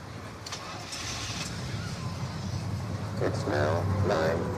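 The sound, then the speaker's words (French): A car engine hums steadily, a low continuous drone with faint muffled voices rising briefly near the end. “Et puis bah, on se retrouve une prochaine fois, je sais pas où. Enfin si, où Bah dans la voiture.”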